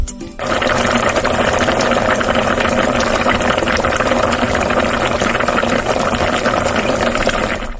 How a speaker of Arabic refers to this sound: والله اتوقع يعني شيء ينطبخ على النار ويغلي يغلي ايوه يغلي ها يعني قدر قدر يغلي على النار تمام يعني ايش في جوا تتوقع؟ جوا لحم وكبسه يعني كذا تغلي طبخه يعني دسمه